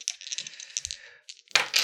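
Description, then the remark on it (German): Dice rolled one after another in a tabletop game clatter across a hard tabletop in a quick run of light clicks and rattles, ending in a sharper, louder burst as they tumble to a stop. No voices are heard. “Das sind schon mal zwei daneben, die nacheinander würfeln.”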